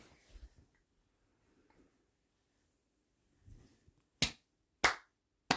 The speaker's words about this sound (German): Boah, das ist ja voll laut. Ich weiß nicht, ob Klatschen so eine gute Idee ist. Nein. Ich glaube, das ist nicht so eine gute Idee sonst knallt das so in den Ohren.